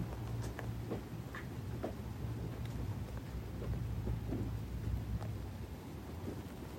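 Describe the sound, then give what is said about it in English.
Steady rain falls continuously, with scattered drips and taps over a low, rumbling background like thunder or wind. No voices are present. “Letting the sound of the rain gently tap you.”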